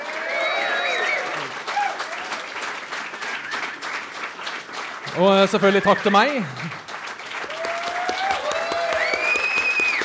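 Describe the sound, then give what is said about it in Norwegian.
A crowd applauds steadily with dense, continuous clapping throughout, while a man's voice speaks briefly over the applause partway through. “Ja, Gi han en god applaus.”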